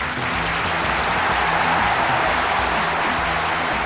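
Steady applause from a group, a dense crackle of many hands clapping at an even loudness throughout, with no voices heard.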